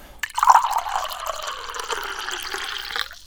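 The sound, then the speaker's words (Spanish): Water pours steadily into a glass for about three seconds, a continuous splashing stream that starts abruptly and stops cleanly, with no one talking. “Tomemos un poquito más de agua,”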